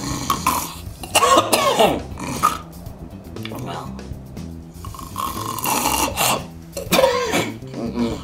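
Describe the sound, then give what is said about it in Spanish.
A person mimics a choking snore with their voice, making rough, rasping snorts and gurgling catches in several bursts over a few seconds, fairly loud. “los que se ahogan con sus propios ronquidos.”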